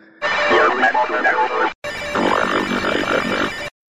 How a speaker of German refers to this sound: Die Soundeffekte sind auch ein bisschen durchwachsen, um ehrlich zu sein. Erinnerst du dich noch an die Sounds, die die Cyborgs machen? An diese beiden hier?